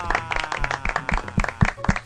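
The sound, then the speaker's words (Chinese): An audience of guests applauds after a song, with a steady patter of many overlapping claps, fairly loud and continuous throughout, with a few sharper individual claps standing out and faint voices mixed in. “来宾，请掌声鼓励鼓励。”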